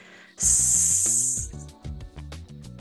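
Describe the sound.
A person with hands on the belly, doing a breathing exercise, produces a loud, sustained hissing "sss" with the breath, lasting about a second, followed by softer tonal, humming sounds.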